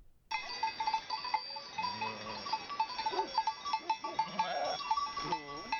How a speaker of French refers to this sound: J'étais bergère, perchée sur la montagne au milieu de deux mille brebis.